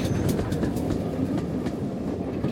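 A train rumbles steadily along the tracks, its wheels clattering in a rough rhythm over a heavy low roar, loud with no voices.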